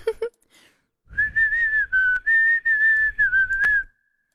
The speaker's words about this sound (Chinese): 一回来就口哨